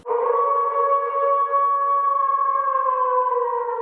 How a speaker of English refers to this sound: Number eight is howl. That's H O W L. Howl is the long, loud, sad cry uttered by a wolf. Everyone knows the sound of the howling wolves at night by the moonlight.